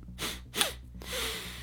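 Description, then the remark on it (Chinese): Two quick, breathy sniffs in succession as a man savours the fragrant air of a room, followed by a longer, airy exhale like a contented sigh, with no talking. “然后陶醉地吸了吸鼻子”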